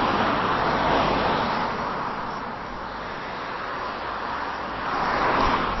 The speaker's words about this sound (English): There we go, there's one. A few more cars coming along, a bit noisy.